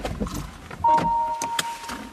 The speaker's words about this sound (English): We get out of his car to hike in nearby Indian Brook Park which backs up on the Lost Nation Road.